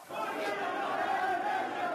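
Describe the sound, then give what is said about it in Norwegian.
A large crowd of protesters in the town of Sueida in southern Syria shouting together, demanding that the governor step down, a dense, sustained roar of many voices raised in chant-like cries with no pauses, steady and loud throughout. “Det er lenge siden slike rop har nådd omverden. Protester og krav om at guvernøren må gå av i Syria.”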